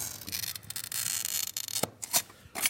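A glass cutter scores glass along a template, a glass triangle held in place against two irons, with a steady, high, gritty scratching hiss, followed by a few short rasping strokes and scrapes near the end. No one speaks.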